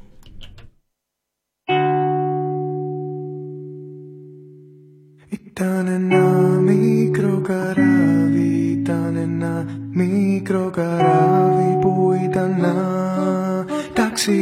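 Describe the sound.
A song begins after a brief pause: a long sustained keyboard chord slowly fades, then a full band kicks in loudly with steady rhythm and layered instruments, playing on without any talk.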